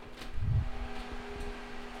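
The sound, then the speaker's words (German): A steady mechanical hum with a faint whine over a constant bed of airy fan noise from a server room holding computer and network components, continuous and unchanging, fairly quiet, with no voices. “Das Geräusch, was du da hörst, ist von unserer Serverkammer.”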